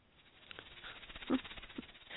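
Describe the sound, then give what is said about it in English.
A voice imitates a snake's hiss: soft, breathy hissing bursts that swell near the end, fairly quiet, with no words spoken. “I am a snake.”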